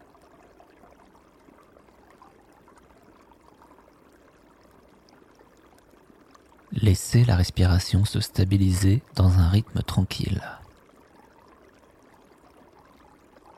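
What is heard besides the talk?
babbling stream water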